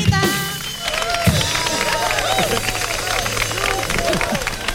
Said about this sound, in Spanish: Fuerte el aplauso a Lucy Paradise.